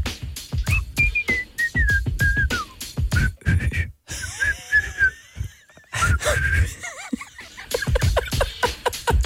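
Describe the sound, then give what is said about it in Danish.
Someone whistles a simple wavering tune, the melody breaking off partway through and starting again, with breathy puffs and what sounds like stifled laughter between the notes. “Okay, det er så kan du lige fløjte den her.”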